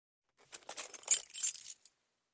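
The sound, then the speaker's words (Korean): A bunch of spare keys jangles briefly, a bright metallic clinking cluster lasting just over a second, fairly clear, with a final small clink at the end. “선생님한테서 예비열쇠 한 뭉치를 받고도 그엔 아주 힘들어했다.”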